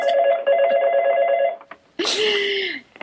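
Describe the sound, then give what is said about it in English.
A telephone bell rings with a rapid, steady trill for about a second and a half, fairly loud, then stops; a short burst of a voice follows after a brief pause. “apparently apparently you're being called.”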